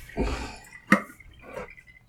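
Water pours into a container in short, splashy bursts, with a sharp clink partway through and a brief pause before a final gush, as the container is refilled during film developing. It is moderately loud, with no talking.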